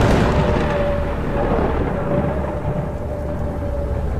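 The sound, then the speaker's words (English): Loud, rolling thunder fills the whole stretch with a deep, steady rumble that never fades or breaks into distinct claps. No one speaks. “A swirling mist formed right in front of the wizard, accompanied by angry cracks of thunder”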